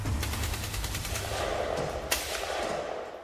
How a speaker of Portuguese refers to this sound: nem imagina que aqueles barulhos possam ser tiros. Talvez sejam os filhos do carcereiro que vivem no primeiro andar da casa-prisão. Mas quando os sons se aproximam e começam a tornar-se mais fortes,